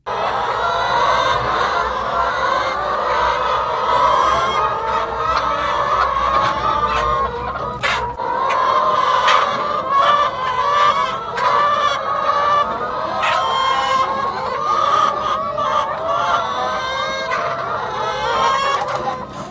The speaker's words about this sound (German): Die Hühner möchten doch immer äh, im engeren Raum miteinander sein. Das sind 8000 Ökohühner auf einem Haufen. Sie weinen.